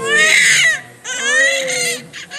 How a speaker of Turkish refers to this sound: Valla şöyle doğduğu andaki ağlamasından itibaren benim kulaklarım çın çın çınlıyor yani. Böyle çok bence çok yüksek ve çok dolu bir ses. Değil mi? Evet. Aslında çok da tiz bağırıyor.